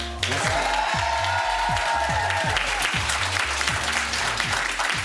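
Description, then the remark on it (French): Loud, sustained applause from a studio audience on a Canal Plus show, welcoming Daniel Auteuil, fills the whole stretch. Dense clapping over a rhythmic thumping music beat, with a brief whoop or tone near the start. “Et avec nous, un tonnerre d'applaudissements pour le boss, Daniel Auteuil.”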